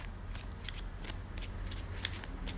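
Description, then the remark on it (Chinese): A deck of Lenormand oracle cards, an original Lenormand deck, being shuffled: a run of crisp, papery riffles and flicks in quick irregular bursts over a low steady hum, with no one speaking. “我会念一下抽到什么，还有用了什么牌，OK，我现在用的是。”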